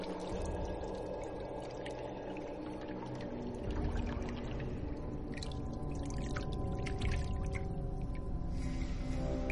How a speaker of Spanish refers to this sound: La reina queda reflexiva y con gesto preocupado. Mete la mano en la pila y observa el reflejo del agua cristalina.